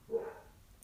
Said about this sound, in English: sorry, that's my dog in the background.